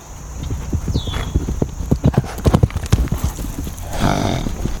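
Horse hooves clip-clopping in a quick, uneven run of sharp knocks, clear, with a breathy rush of noise swelling near the end.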